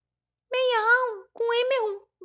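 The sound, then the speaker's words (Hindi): Two wavering, nasal goat bleats in quick succession, fairly loud, apparently a person's voice imitating a goat that has fallen into a well, rather than a real animal. “थोड़ी देर बाद एक आदमी उधर से निकला उसने बकरी के मिमियाने की आवाज सुनी आदमी ने पूछा तुम कहां से बोल रही हो”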